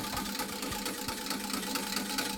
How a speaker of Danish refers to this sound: Øhm, så pisker jeg simpelthen i det. I vandet. Så der kommer sådan en virvel i.